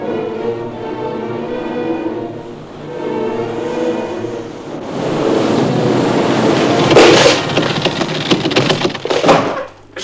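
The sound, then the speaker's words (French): A groaning, creaking drone gives way to heavy wooden thuds and cracking, ending in a loud splintering burst as a stuck wooden door breaks open under the blows of a father and his son. “Après quelques vaines tentatives, cependant, la porte finit par céder sous les coups”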